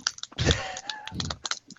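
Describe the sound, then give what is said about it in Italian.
Aluminium foil being crinkled, a dense run of crackly, crunchy rustles in short bursts, with one louder scrunch near the start and no voices. “Che, che sgranocchia eh. carte di alluminio.”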